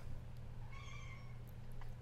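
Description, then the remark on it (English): A single drawn-out meow from Pepper the cat, fairly faint, sounds over a steady low background hum. No one speaks. “Pepper just meowed, by the way, yeah.”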